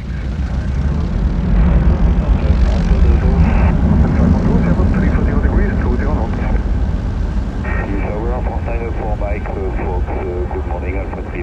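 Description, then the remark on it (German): A loud, steady airplane engine roar, deep and rumbling, holds throughout as an aircraft powers up for takeoff on runway 29, cleared with wind from 330 degrees at 17 knots, with muffled voices talking over it. “Mike Fox, hello, the wind 330 degrees 17 knots, runway 29 cleared for takeoff.”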